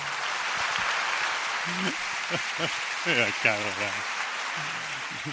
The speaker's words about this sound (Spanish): vamos a recibirlo con un fuerte aplauso.